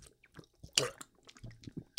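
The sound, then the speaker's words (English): Someone drinking water, with soft wet mouth clicks and gulping swallows and one sharper, louder slurp partway through. No talking. “Sorry, drinking water.”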